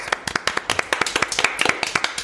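Brisk applause from a few pairs of hands: sharp, overlapping claps in a quick, slightly uneven rhythm, fairly loud and sustained for a couple of seconds with no one speaking.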